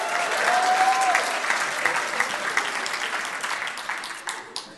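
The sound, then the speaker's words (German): Loud, dense applause from a crowd, a steady wash of many hands clapping that gradually thins out, with a brief high whistle early on. “ja genau, fetten Applaus.”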